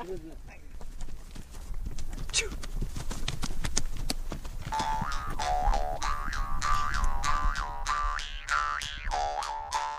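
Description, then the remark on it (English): Hooves of sturdy little Mongolian horses being ridden clip-clop in a steady, brisk rhythm throughout, fairly loud, while a sustained melodic tone joins partway through and carries over the hoofbeats. “Five days on horseback, riding and camping, looms before us.”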